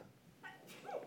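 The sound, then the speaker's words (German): A single faint sneeze: a short voiced intake followed by a sharp, hissy burst, then a brief trailing vocal sound. “Doch viele, Gesundheit.”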